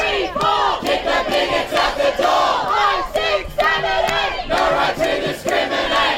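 A large crowd of protesters shouts and chants together in loud, overlapping bursts across the road from St Mary's Cathedral during a cardinal's funeral, in support of LGBTIQ+ people and women's rights; voices rise and fall in a rough rhythm, dense and continuous throughout, with no single speaker standing out.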